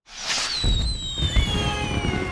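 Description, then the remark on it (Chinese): Fireworks fill the sky at a candy festival, with shrill whistles gliding downward over a steady crackling hiss and a couple of deep, booming bursts rumbling underneath. No voices. “糖果大会上，烟花洒满天空”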